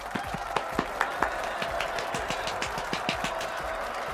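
A few people applaud steadily for several seconds, with sharp, distinct claps overlapping at a moderate level over a faint background hum; nobody speaks.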